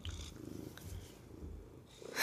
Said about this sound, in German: ja, wie man hört, ist die Katze äußerst zufrieden. Weil sie jetzt wieder hier rein darf und ihr seinen Willen bekommen hat. Gell, kleines weißes Kätzchen?